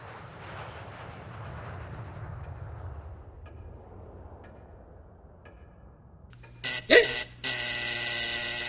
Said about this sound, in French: Le buzzer cria sa colère dans le silence de la pièce, traversant le corps de Runta telle une décharge électrique rayonnant dans l'air.